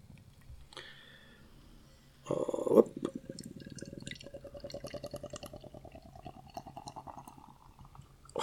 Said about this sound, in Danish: det lyder helt mærkeligt at hælde den op den her dose.